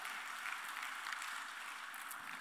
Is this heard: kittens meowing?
no